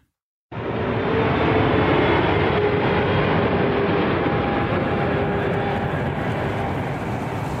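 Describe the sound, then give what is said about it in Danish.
An airplane flying to Cyprus: its steady, loud engine roar begins abruptly after a brief silence and holds as an even, broad drone throughout, with no voices. “Vi holder bare lige en lille kort pause, og så tager vi med en flyvemaskine til Kyberen.”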